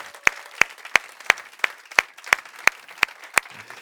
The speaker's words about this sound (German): Und äh, wir wollen auch alle begrüßen, die uns zuschauen. Und äh, wir wollen die mit einem herzlichen Applaus und unseren besten Grüßen einfach heute äh, willkommen heißen.